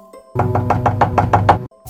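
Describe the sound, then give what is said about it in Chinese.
Rapid, urgent knocking on a door early in the morning: about nine quick, evenly spaced raps in a steady, insistent rhythm, loud and sharp with no voices. “第二天一早呢，就听到很急的敲门声。”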